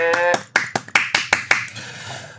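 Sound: clapping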